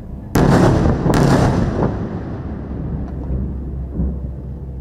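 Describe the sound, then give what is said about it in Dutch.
Two heavy bomb blasts from bombardments in the Israel–Hamas war boom close together, each leaving a deep rolling rumble that slowly fades into a low, steady background drone, with a fainter thud later on. “En die rapporteerden ook dat er elke paar minuten wel bombardementen te horen waren.”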